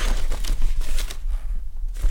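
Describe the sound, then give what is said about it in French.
Busy rustling and shuffling of paper sheets as someone searches through documents for a lab analysis, with crisp crinkles and light taps coming in irregular bursts. No one speaks. “Je vais te ressortir une analyse. J'en ai vu une où il y avait le, papier du labo.”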